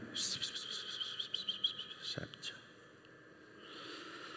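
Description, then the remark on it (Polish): A breathy voice whispers for about two seconds in an insistent, coaxing way, imitating the tempting whispers of Satan, then falls away into a faint background hiss. “I te szepty są bardzo przykre.”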